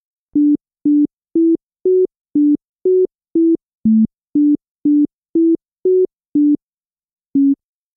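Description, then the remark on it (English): A simple melody of short, pure synthesized tones, played without the notes shifted up or down in octaves: about fourteen evenly spaced notes rising and dipping within a narrow range, then a brief pause before one last note. No voices. “Now I'm going to play it for you without the notes shifted up or down in octaves.”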